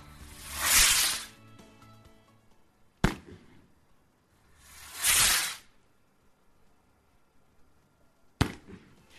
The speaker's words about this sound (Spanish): Una tradición, la de tirar cohetes en el primer entrenamiento de la semana tras victoria de Osasuna, que lleva ya unos cuantos años.